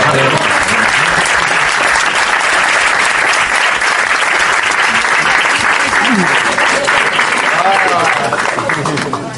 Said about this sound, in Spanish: Es el, el niño de la peli. Un, un aplauso. Un aplauso.